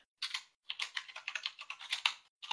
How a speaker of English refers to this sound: I've been typing. That's why all the tippity tippity tippity tippity.